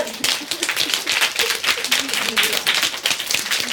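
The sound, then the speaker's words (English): A crowd taps two fingers against their palms, making a dense, steady patter of countless overlapping little claps that imitates heavier rain, fairly loud and continuous throughout. “All right, and we add in our second finger, it's raining harder.”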